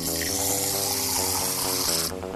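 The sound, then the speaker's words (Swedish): A steady hiss of water spraying out of the tires of an Aston Martin car at the press of a button, loud, layered over a droning electronic tone, running continuously for about two seconds before the spray abruptly cuts off. “När du trycker här sprutar det vatten ur däcken.”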